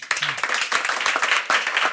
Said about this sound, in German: Applaus